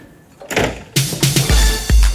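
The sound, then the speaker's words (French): A secret door to a clandestine Provençal bar opens with a mechanical grinding slide, a few quick clicks and rattles, then two heavy low thumps as it settles. Fairly loud, with no voices. “Derrière, par cette porte secrète, il y a mon bar.”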